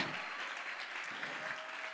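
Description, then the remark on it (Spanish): An audience at a church sermon applauds steadily, a dense wash of many hands clapping at an even, fairly loud level throughout, with no voices standing out. “Si va a dar un aplauso aquí, déselo bien.”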